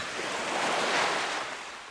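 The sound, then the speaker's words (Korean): Ocean waves break on Daecheon Beach in a steady, full wash of surf that swells and slowly recedes over two seconds, fairly loud with no voices. “그렇게 우리는 전설 같은 연애 소문을 공유하며 대천 해수욕장에 도착했고 푸른 파도가 우리를 맞이해 주었습니다.”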